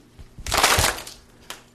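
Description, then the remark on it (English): An audience slaps their hands together almost at once on a countdown cue during a group exercise, making a loud, slightly smeared burst of claps lasting about half a second, followed by one faint stray clap. “Then I'd just like to get you to slap your hands, okay?”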